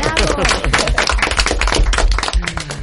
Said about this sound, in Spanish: Y tenemos un público maravilloso al que sí voy a pedir un aplauso por el esfuerzo de haber venido hasta aquí.